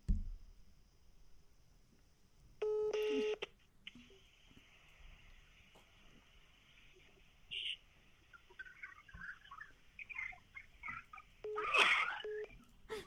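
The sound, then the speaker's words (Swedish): A phone call to a woman's phone sounds a short, steady electronic ring tone over a faint, hissy connection, followed by scattered beeps and noises from the call, with no clear talking. “Nu ringer hon.”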